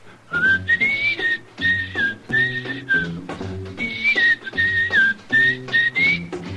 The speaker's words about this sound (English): Introducing one of the country's best known jazz musicians and arrangers, Mr. …. How about whistling along with him?